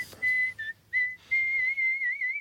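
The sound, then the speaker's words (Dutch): A clear whistled folk melody: a few held notes separated by brief pauses, ending on a long note with a wavering vibrato. The whistling is alone, with no talking. “Het nummer dat hij altijd en overal zong. Nou, de Wildrover.”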